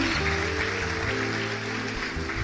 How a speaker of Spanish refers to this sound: Dale el aplauso al Rey. Bendito sea el Señor.